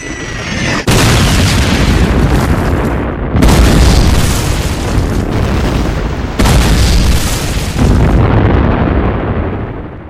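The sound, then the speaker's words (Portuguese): A loud, continuous German artillery barrage, some 1900 guns along the front firing at once before dawn in the Ardennes Forest in December 1944, heavy booms blending into a dense roar with sharp blasts every few seconds, no voices heard. “Então, o silêncio do momento foi quebrado pelo som da artilharia alemã.”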